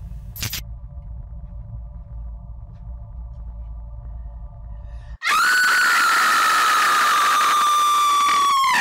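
A low, steady rumble fills the first few seconds, then a woman lets out one loud, piercing scream that holds high and sustained, sliding slightly downward until the end.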